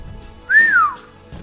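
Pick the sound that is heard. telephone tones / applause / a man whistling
a man whistling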